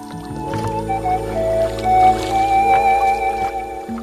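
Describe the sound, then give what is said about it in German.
A gondola being rowed by a gondolier across the calm water of the Wörlitzer See in the Wörlitz Garden, with long creaking, squealing tones from the oar or hull over a steady low rumble, fairly loud, no voices. “Sie haben einen Gondolierer dabei und der rudert Sie in etwa einer Stunde äh, über den Wörlitzer See und durch die Kanäle.”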